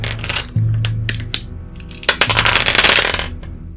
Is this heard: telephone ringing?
no